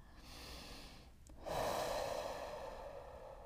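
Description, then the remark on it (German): A person takes a slow, deep breath during a breathing exercise: a soft inhale builds, a brief pause, then a long, fuller exhale with a breathy rush that fades gradually. Quiet, no talking. “Wir fangen an mit dem Atmen.”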